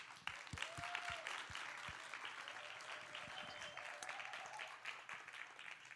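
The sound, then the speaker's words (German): Audience applause for a theater team that performed a Christmas story: steady, dense clapping from many hands that holds at an even level for several seconds, with a few sharper individual claps and a faint whistle early on. “Und ich finde es richtig cool, an dieser Stelle nochmal einen riesen Applaus vielleicht von unser Theaterteam.”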